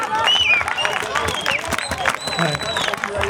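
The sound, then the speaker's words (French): An audience applauds steadily, a dense patter of many hands clapping at once, mixed with crowd noise and a few high-pitched cries or whistles rising over the steady clapping, applauding the event host at a school cross-country race festival. “Voilà, on peut l'applaudir.”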